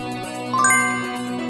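A bright notification-bell chime, as for a YouTube channel, rings out over a steady sustained musical backdrop, with a quick rising cluster of tinkling bell tones that ring on and slowly fade.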